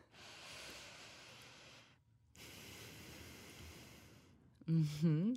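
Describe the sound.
A person imitates slow, dense, heavy breathing: two long, drawn-out breaths with a short pause between, followed by a brief burst of voice at the end.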